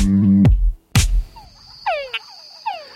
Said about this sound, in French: Les dames grenouilles Tungala sont séduites par les chants des troubadours, dans lesquels le gémissement est suivi par le plus grand nombre de tchaks.